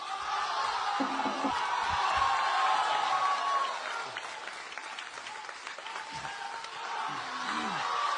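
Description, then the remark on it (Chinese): A large crowd applauds in a dense, steady roar of clapping that lasts throughout, with scattered shouts and whoops of cheering rising above it, easing slightly midway before swelling again, at Beijing Deyunshe's first show after reopening, welcoming the troupe's opening sung piece 'Ba Si Xi Er' by all its performers. “那首先呢，请您欣赏由德云社全体演员为您带来的开场小唱《八四喜儿》，掌声有请。”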